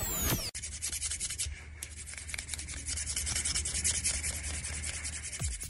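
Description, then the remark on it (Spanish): Street sweepers' stiff brooms sweeping pavement in a steady run of rough, hissing scrapes, one stroke after another, loud and continuous, with no one talking. “Los barrenderos con, este, que, son nuestros amigos.”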